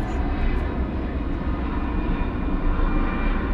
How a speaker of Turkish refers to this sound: Atatürk Havalimanı kapandı dediler. O yüzden burada biz çekim yapıyorduk ama işte o kargo uçağı